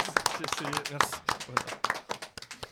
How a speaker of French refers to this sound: Bah, bravo. on applaudit.